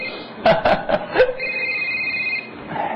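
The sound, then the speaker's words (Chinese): A phone rings with a steady, high electronic tone lasting about a second, just after a few short, loud vocal bursts, with faint background murmur throughout. “哎，你电话。”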